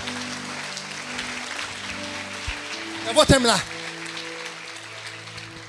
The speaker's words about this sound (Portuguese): Aleluia. Ajuda o irmão a aplaudir, gente.